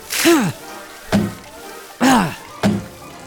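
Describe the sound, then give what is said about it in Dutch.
Four sharp, thunking chops in a halting rhythm, each with a voiced, grunt-like tone, suggesting a voice imitating Maurice's axe hacking brooms in two in a told story, fairly loud. “Maurice pakte de bijl en hakte de bezems weer door midden.”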